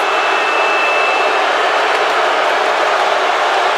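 A large crowd roars in a dense, continuous wash of noise, loud and steady for the whole few seconds, with no single voice standing out.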